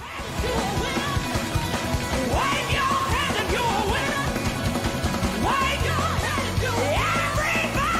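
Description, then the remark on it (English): Loud, excited shouting and whoops rise and fall continuously for several seconds, dense and energetic like a celebrating crowd during a church-style praise break, with a steady low musical drone underneath toward the end. “Because that deserved a whole praise wow. break.”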